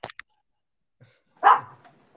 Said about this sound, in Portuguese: para de latir, caralho.